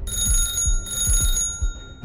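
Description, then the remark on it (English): An old-style telephone rings with a loud, continuous metallic bell trill, bright and high-pitched, pulsing rapidly over about two seconds with no voices. “Huh, that's funny. My phone is ringing.”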